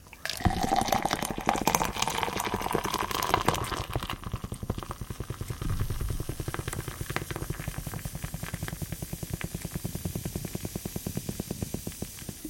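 Beer is poured hard into a glass, a loud, continuous gush of liquid that settles into rapid glugging and fizzing over about twelve seconds, with no voices.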